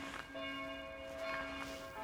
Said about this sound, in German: Die Kirchenglocke hat angefangen zu läuten.